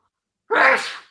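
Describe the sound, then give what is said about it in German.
A single loud sneeze bursts out after a moment of silence, sharp at the start and trailing off quickly. “Gesundheit. Gesundheit.”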